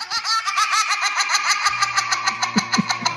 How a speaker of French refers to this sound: mon petit garçon quand il a un fou rire. Parce que ça fait un bruit.